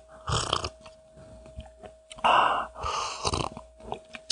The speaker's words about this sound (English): Oh yeah, there we go. Yeah, a good sip of tea and a little tiny burp.